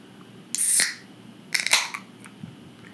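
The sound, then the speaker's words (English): A can of Something Easy beer, 5.7% ABV and about 50.8 IBU, is cracked open: a bright fizzy hiss bursts out, followed by a few sharp metallic clicks and crackles, with no talking. “Um, and so let's go ahead and crack this uh, uh, crack this puppy open.”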